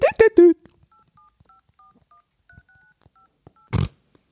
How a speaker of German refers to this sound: Gibt es laute Tastentöne, damit man das hört?